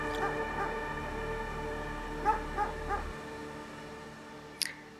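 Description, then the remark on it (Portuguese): Dogs bark, a scattered series of short yaps and yips, with a steady low hum underneath and a sharper high-pitched yelp near the end. “E aqueles cachorros latindo, latindo, latindo.”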